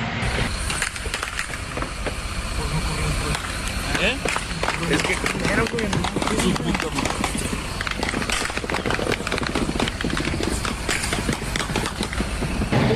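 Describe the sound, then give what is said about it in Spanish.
Heavy-caliber gunfire crackles in rapid, repeated bursts throughout, sharp reports stacking over one another, while a person speaks briefly and nervously over the shooting; an armed clash between organized crime groups on the Reynosa to Río Bravo highway, recorded by witnesses lying on the floor. “captaron las imágenes mientras se escuchan las detonaciones de armas de fuego de grueso calibre”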